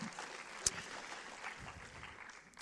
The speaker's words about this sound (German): Ich würde euch ganz gerne einen warmen Applaus geben für das.